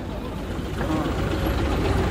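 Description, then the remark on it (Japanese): A police vehicle's heavy engine rumbles steadily as it passes through a crowd, a low continuous drone that swells slightly as it moves, with the crowd murmuring and voices around it. “警察車両通ります。”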